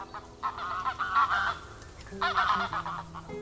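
Waterfowl, geese, honk in two loud bursts of overlapping, nasal calls at a quiet lakeshore, a pause between them, with a low background murmur.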